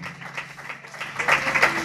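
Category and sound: crowd, audience clapping hands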